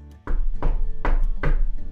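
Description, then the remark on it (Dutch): Four loud, evenly spaced knocks as the Hoofdpiet knocks on Sinterklaas's door at a quarter past nine in the evening, each a deep, hollow thud with a short ringing tail, and no voices. “Om precies kwart over negen die avond klopte de hoofdpiet op de deur van Sinterklaas.”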